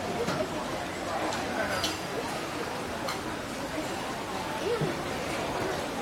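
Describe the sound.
Steady crowd chatter in a busy hawker centre food court, many overlapping voices blending into a constant hubbub, with occasional clinks and ticks of dishes and utensils scattered through.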